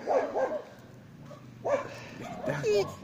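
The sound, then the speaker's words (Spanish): A dog whines and yelps close up, its high, wavering cries coming in several loud bursts mixed with short barks, with brief quieter pauses between them. “Ay, no me llores así en el oído.”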